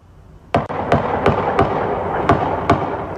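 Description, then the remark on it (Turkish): A rapid series of sharp gunshots, about seven evenly spaced cracks in quick succession over a loud, continuous background roar, with no talking, during an armed attack on a Jehovah's Witnesses church in Hamburg, northern Germany, around 9 p.m. “Saat 21 sıralarındaki saldırıda ard arda silah sesleri duyuldu.”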